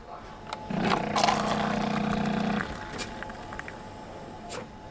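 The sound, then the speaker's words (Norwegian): A low, buzzing drone of hospital machines swells for about two seconds, then drops away. A faint steady whine lingers throughout the quiet hospital corridor, with soft scattered sounds and light talking from the break room around it. “Det eneste man kan høre, er en during fra maskinene og lett prating fra pauserommet.”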